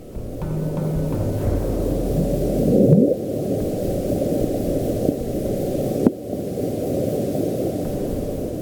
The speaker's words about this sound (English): Listen up, home slice. This is what the bloop sounded like.